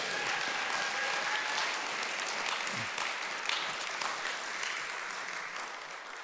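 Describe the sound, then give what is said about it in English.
An audience in a church applauds together after a prayer, a dense, steady wash of many hands clapping that holds at an even level throughout and thins only slightly toward the end, with no voices heard. “I thought everyone got, automatically got a round of applause in this church.”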